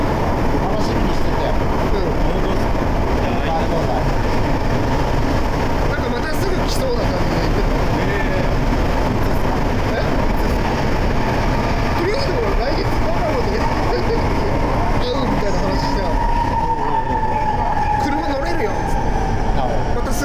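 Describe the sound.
Loud, steady rumble and roar of a Sapporo Municipal Subway Namboku Line car running along the track in Sapporo, Hokkaido, heard from inside the train, with a rising electric whine near the end and indistinct voices murmuring underneath.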